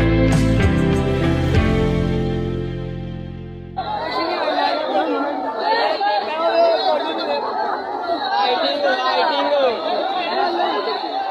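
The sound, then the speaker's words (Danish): A short musical passage fades out, then a crowd of several hundred men in a park in Pakistan fills the scene with dense, overlapping chatter and shouting, loud, continuing steadily to the end outdoors; the men are harassing a young woman. “Det er nemlig en af mange videoer, der viser op til flere hundrede mænd for at ulempe en ung kvinde.”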